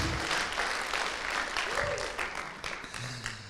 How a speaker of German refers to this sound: Und geben wir einen riesen Applaus. Wow, cool.